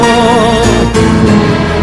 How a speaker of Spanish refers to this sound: Qué lindos tangos que escuchamos